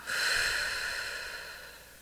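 A single long, airy breath in and out, rising quickly and then slowly fading over about two seconds, with no talking.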